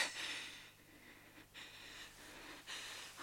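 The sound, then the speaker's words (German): A man snores in his sleep: slow, raspy breaths that rise and fall in a steady rhythm, heard quietly, with no talking. “Lächerlich dieses Schnarchen, dieser massige Hals, die verwelkte Fratze.”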